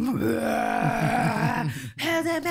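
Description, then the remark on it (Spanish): A voice imitates guttural, demonic screaming like the screams in The Exorcist, heard on a ship on the second night: a loud, rough, strained howl held for over a second and a half, a brief break, then another harsh burst. “Uh segunda noche empiezo a oír unos gritos como del exorcista como.”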